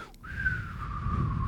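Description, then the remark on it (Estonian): A person whistles a single thin, breathy note that holds steady for over a second and sags slightly in pitch, sounding weak and airy over a low background rumble. “sa ka ei oska vilistada või?”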